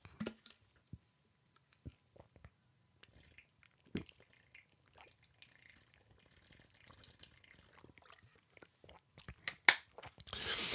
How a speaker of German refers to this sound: So, und jetzt werde ich erstmal einen Schluck trinken.